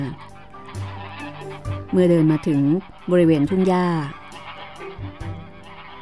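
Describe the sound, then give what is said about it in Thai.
A flock of geese honks loudly in two quick bursts of overlapping nasal calls as a girl drives them through a town to the fields, while a voice speaks calmly before and after them. “แต่เธอก็เดินเลยผ่านไปในเมือง เพื่อไล่ฝูงห่านไปยังทุ่งนา”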